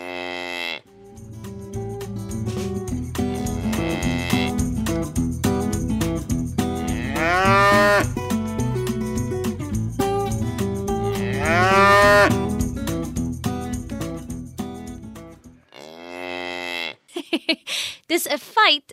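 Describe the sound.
Two long, drawn-out cow moos rise over steady background music, several seconds apart and fairly loud, followed by a brief stretch of someone speaking at the end.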